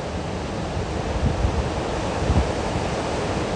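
Steady ocean surf washes continuously on the shore, a broad rushing hiss with soft low swells rising around the middle and again near the end, no voices present.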